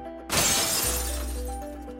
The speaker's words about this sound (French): À un carrefour, la vitrine éclairée d'un traiteur attire son regard. Foie gras, truffes, champagne, son ventre se met à gargouiller. Sans réfléchir, il récupère une pierre dans le caniveau et fracasse la vitrine.